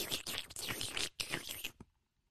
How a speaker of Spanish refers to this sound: El hielo en el micrófono como que a la gente no le gusta eso.